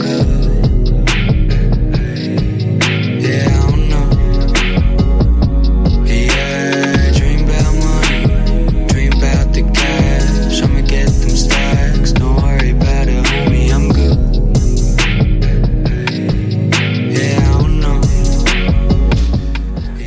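A loud hip-hop track plays throughout, driven by a heavy, booming bassline and a steady, punchy beat, with dense layered instrumentation filling the mix.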